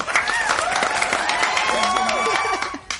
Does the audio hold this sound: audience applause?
yes